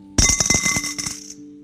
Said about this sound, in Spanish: La manera es que era, era un plato de metal y la gente daba monedas de metal.